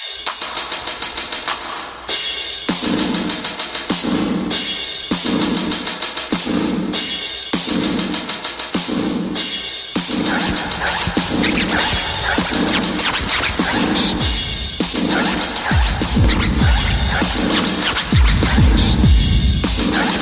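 A hip-hop track with a booming, steady drum-machine beat and heavy kick pulses, plus sharp record-scratch effects cutting across the rhythm; loud and continuous, with no voices.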